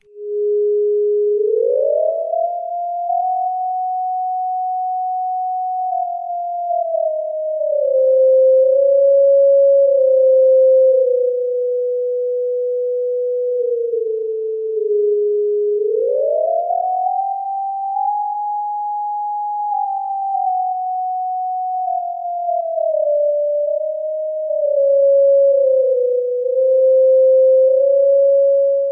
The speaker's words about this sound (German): Die Star Trek Musik ist aber mit ihren Sprüngen nicht unbedingt der richtige Einstieg für einen Theremin-Anfänger.